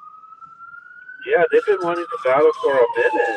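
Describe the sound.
An emergency vehicle siren in New York holds a long, slowly wavering wail, heard alone at first and then continuing beneath a man talking.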